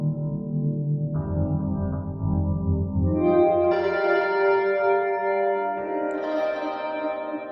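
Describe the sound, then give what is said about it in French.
A guitar processed to sound like an electric piano plays sustained, bell-like chords that build in brightness, with a warm, slightly echoing tone and no voices. “Ah, piano électrique, piano électrique.”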